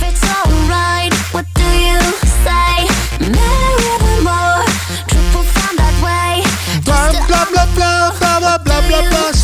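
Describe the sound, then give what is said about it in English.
Loud, bouncy circus-style music plays continuously, with a thumping oom-pah beat and bright, brassy melodic lines sliding up and down over the rhythm. “This sounds like circus.”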